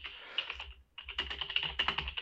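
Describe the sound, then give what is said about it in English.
Rapid clicking of keys on a computer keyboard, a dense run of crisp taps with a brief pause before the typing resumes faster. No one speaks. “I'm, I'm typing all that jazz.”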